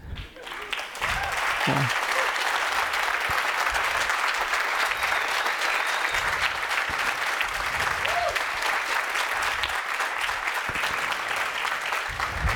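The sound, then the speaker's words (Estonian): An audience applauds the event organizers after a brief pause, a dense, steady wash of clapping that stays loud and even for about eleven seconds without fading. “ma arvan, korraldajad väärivad äh, Äh, noh, aplaus on kuidagi nagu noh, ütleme nii kaks tuhat viis, aga noh, et, et teeme ikka aplausi või midagi.”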